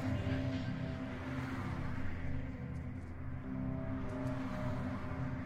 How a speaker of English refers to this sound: she doesn't seem to pay any attention to the cars going by right now